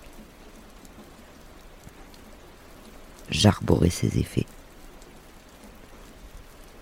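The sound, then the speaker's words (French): Steady rain falls throughout, a soft, even hiss, with a short burst of speech in the middle that rises over the downpour before it settles back to constant patter. “Je la craignais et ne voulais pas d'elle. Elle est ce que j'ai, ma pluie.”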